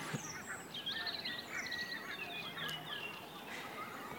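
Redwing song heard during a May Day morning dawn chorus, among a busy tangle of other high-pitched bird calls: short whistled phrases and chirps overlapping continuously over a steady background hiss, with no voices.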